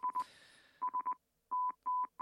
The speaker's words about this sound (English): It's uh, the theme to Thoughts from a Lawnmower.